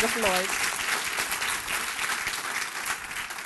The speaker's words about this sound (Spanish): Dele ese fuerte aplauso al Rey de Reyes y Señor de Señores.